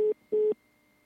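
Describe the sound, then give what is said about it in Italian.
A telephone busy tone after a phone call with a guest drops during a broadcast: two steady, mid-pitched beeps with a short gap between them, loud and clean with no voices, then the line goes quiet except for a faint hum. “Allora, eh, è caduto, eh, allora adesso eh, lo eh, metto alla pubblicità e poi lo richiamiamo.”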